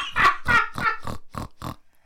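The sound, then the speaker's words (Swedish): A person imitates a pig with six quick, nasal oinks in a steady rhythm, loud at first and fading slightly toward the end, with no other sounds around. “Det här är en gris.”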